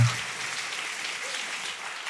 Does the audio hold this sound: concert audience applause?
yes